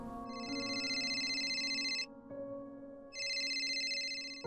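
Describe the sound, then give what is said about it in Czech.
A telephone taped to a bathroom ceiling rings in two long electronic bursts separated by a short pause, loud, with a steady tonal hum continuing underneath throughout. “Telefon zvoní.”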